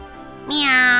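A voice imitates a cat with one drawn-out meow. It starts low and soft, then swells into a loud, bright, high-pitched wail that holds steady to the end.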